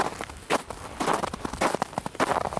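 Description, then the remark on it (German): Footsteps trudge steadily along a narrow path through a cleared forest area full of tree stumps, each crunching step distinct in a slow, regular rhythm, with faint rustling between strides and no voices. “Als ich weiterstapfe auf dem schmalen Pfad, höre ich plötzlich ein knirschendes Geräusch hinter mir und drehe mich um.”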